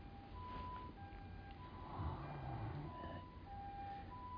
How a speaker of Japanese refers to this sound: えー、っと、救急車だ。